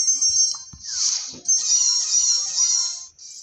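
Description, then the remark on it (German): Bright, high-pitched electronic chimes ring out in quick succession as coins are collected in a video game, with a few soft low thumps underneath and no talking. “Man wird jetzt so oft Münzen hören.”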